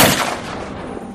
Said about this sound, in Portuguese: A Lídia para de tocar e cai para trás quando o tiro acerta ela.